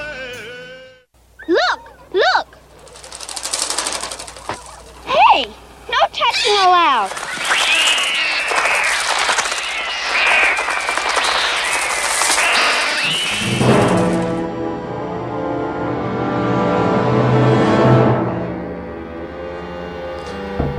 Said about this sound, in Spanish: Escuchaban pájaros. Entonces, bueno, Los pájaros, señores, 1963.